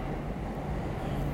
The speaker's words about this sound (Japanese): 今ちょっと後ろ電車の音もうるさくてすいません